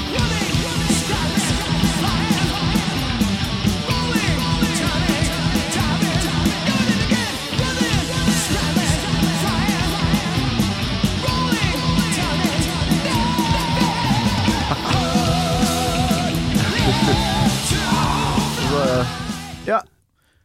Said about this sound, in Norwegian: Det er vel brua inn mot refreng her. Det er så sjukt intens låt å starte mm. med.